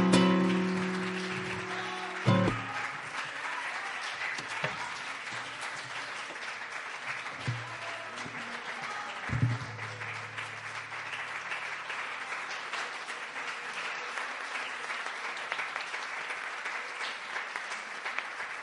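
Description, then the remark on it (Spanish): A crowd applauds steadily, a dense wash of many hands clapping that holds at an even level throughout, with a few brief low tonal swells early on and no voices standing out. “el aplauso es para vosotros, ¿eh?”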